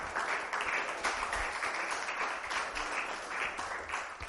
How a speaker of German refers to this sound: Lass uns ihm einen Applaus geben, denn er ist der Herr. Amen.